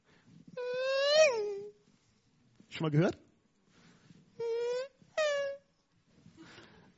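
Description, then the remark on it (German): A voice imitates race cars zooming past on a race track, showing the Doppler effect, with several loud vocal swoops whose pitch rises and then drops sharply, followed by two shorter steady tones and a brief spoken question. “Das ist das, wenn wir zum Beispiel an einer Rennstrecke stehen und Autos fahren vorbei. Dann hören wir diese, diese Fahrzeuge an uns vorbeirauschen.”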